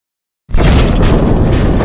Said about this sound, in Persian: مثل صدای یک انفجار اون از طبقه همکف میاد مطمئنم که یه همچین صدای وحشتناکی رو از نزدیک تا به حال نشنیدی